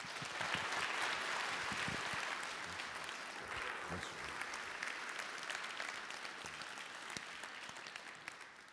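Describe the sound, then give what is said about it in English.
An audience claps together to welcome a pastor to the pulpit, a dense, sustained burst of applause lasting the whole stretch, steady and full at first, then easing slightly in loudness while staying continuous. “I've never had that like kind of applause, man.”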